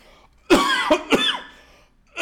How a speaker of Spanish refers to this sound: Perdón que voy a toser.